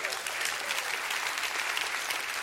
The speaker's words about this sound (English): Come on, let's give Jesus a hand clap here today.